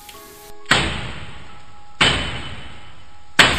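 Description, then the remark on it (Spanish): Three heavy, dry knocks strike a door at slow, uneven intervals, each a loud thud with a short ringing tail, and no voices. “Se escuchó en la puerta, pero los golpes fueron secos, como hechos con un mazo.”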